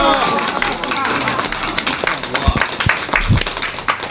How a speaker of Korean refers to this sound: 큰 박수로 맞이해 주세요. 박수!